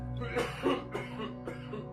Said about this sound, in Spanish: La tos del anciano continuó y el joven ya no pudo más.